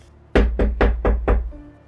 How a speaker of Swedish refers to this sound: Ytterdörren är stängd. Ja, det var, det var inte en, den typen av entré, nej. Kapten, tillåt mig. Eh. Knackar på dörren.